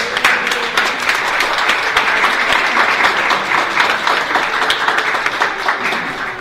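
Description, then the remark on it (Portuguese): Steady applause from a crowd celebrating the first person vaccinated at a school, a dense wash of many hands clapping at once, loud and sustained for several seconds without pause, with no clear voices above it. “Primeiro vacinado lá, salve palmas aqui.”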